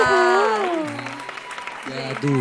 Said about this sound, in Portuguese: Gente, tá uma salva de palmas!